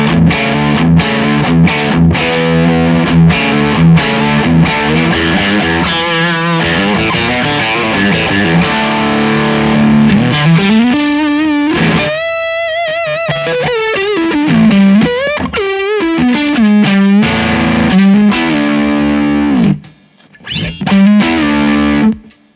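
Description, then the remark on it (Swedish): An electric guitar played through a Baby Pink overdrive pedal with the gain set at about 12 o'clock, with crunchy sustained chords and melodic bends, loud with no talking until a brief pause near the end. “Baby Pinken då, fast, med, fast där gainen står mer på klockan 12 kanske.”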